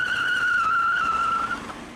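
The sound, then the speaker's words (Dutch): A race car's tires squeal in one long, high, steady screech for about a second and a half as it skids out of a bend, loud, then fade out with the engine noise underneath. “Of smalle raceauto's, die door weinig weerstand misschien sneller kunnen rijden, maar ook makkelijker uit de bocht vliegen.”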